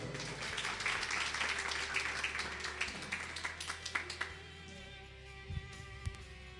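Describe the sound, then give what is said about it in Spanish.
A crowd breaks into steady applause, dense overlapping claps for several seconds before thinning out and fading to a few scattered claps. “¿Por qué no se da un aplauso y toma su lugar?”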